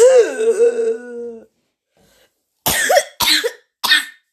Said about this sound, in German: Ich habe gerade so einen richtig miesen Husten.